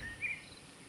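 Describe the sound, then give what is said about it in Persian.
A faint, high-pitched cricket chirp trills briefly against a quiet background hush, thin and steady, with no voices present. “بوی کاهگل مشامش را پر کرده و جیرک ها برایش مرسی سر داده بودند.”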